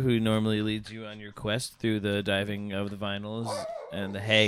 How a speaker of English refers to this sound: that's a dog. You're gonna stop that now.